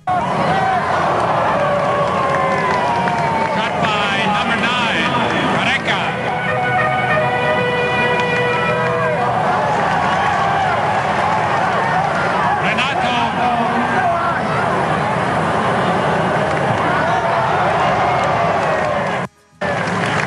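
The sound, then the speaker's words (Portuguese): A booming stadium loudspeaker voice calls out the names of Brazilian players at a match in New York, echoing over a dense, roaring crowd with sustained tonal calls and cheers rising throughout, reverberant and continuous for about twenty seconds before a brief dropout. “Mas tem o, o som do estádio berrando aí o nome dos jogadores brasileiros.”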